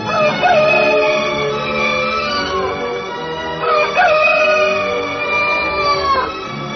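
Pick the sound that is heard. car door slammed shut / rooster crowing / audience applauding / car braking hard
rooster crowing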